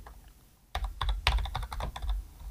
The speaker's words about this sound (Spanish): Además que se escuche el teclado que lo estoy haciendo.